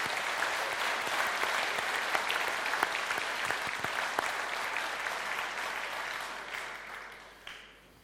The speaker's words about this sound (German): Ja, ruhig mal einen Applaus auch für die. Super.